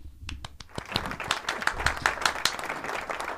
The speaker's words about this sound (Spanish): Aplauso. Ahí.